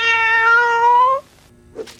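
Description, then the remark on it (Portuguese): A cat lets out one long, loud, drawn-out meow, rising slightly in pitch, followed by quiet and a brief soft sound near the end. “Tareco, alimento para gatos.”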